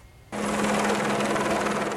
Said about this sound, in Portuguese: A Polícia Civil chegou com mais de 100 agentes para cumprir mandados de prisão e busca e apreensão. O helicóptero deu apoio.